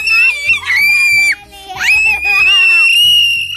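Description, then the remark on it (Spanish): A child screams shrilly and loudly, two long sustained high-pitched shrieks separated by a brief break, over a low murmur of background noise. “¡Ey! Sin gritar, a ver otra vez.”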